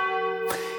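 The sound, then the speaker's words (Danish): A large bell in the yellow bell tower of a central town building rings with a rich, lingering metallic hum, and a fresh strike lands midway through, renewing the bright clang over the sustained tone. No voices are heard. “Hun synes, vi skal mødes ved det gule klokketårn midt i byen.”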